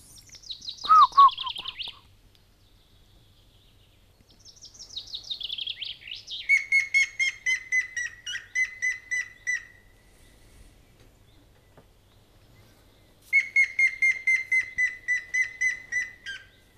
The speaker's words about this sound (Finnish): Sitten voitaisiin kuunnella harmaa päätikka, koska se on ainakin helppo oppia tuntemaan, jos, jos kuulee läheltä, niin oikein rauhassa ihmiset saa kuunnella. Ja helppo matkia viheltämällä.